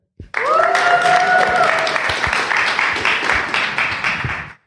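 A live audience that came to listen that evening bursts into loud, steady applause with whoops and cheering voices rising at the start, sustaining for several seconds before cutting off abruptly.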